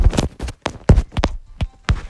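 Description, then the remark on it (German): A dog walks across a hard floor, its paws and claws making a quick, uneven series of sharp clicking taps, fairly loud and with no talking over them. “Das ist unser Hund.”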